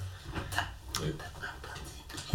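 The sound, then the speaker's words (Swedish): Newspaper pages rustle and crinkle as someone reads, in a series of soft, irregular papery bursts, fairly quiet, with a brief low thump right at the end. “Eh, du hör, hör prasslet av han jag, läser.”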